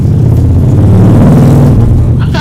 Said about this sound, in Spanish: Y saludos al vecino que pasa con la moto.